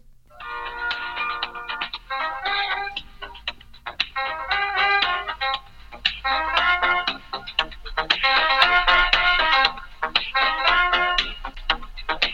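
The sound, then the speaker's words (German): Tinny, band-limited hold music plays over a phone line: a bright, looping electronic melody with steady rhythm, compressed and slightly distorted, with no voices. “Ist das nicht eine hammergeile Mucke, Digga?”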